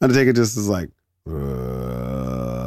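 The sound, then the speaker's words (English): A man speaks briefly, pauses, then lets out a long, low, strained grunt for over a second, his voice imitating a man slowly lifting up his trench coat and opening it out to show an American flag; loud. “that's that's the noise of a man slowly lifting up his, his trench coat and opening it out to show you an American flag.”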